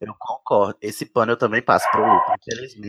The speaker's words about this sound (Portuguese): Tem um cachorro latindo, ó. Ele tá concordando. É o Sirius.